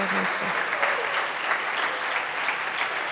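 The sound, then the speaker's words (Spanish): A crowd applauding the King of Glory during a Bible reading, with dense and sustained clapping filling the whole stretch at an even loudness and a faint voice briefly audible at the start. “Dale un aplauso al Rey de Gloria, al Rey”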